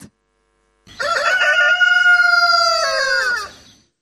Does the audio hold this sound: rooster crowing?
yes